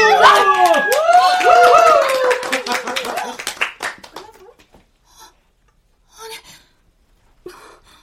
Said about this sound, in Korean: 야, 박수!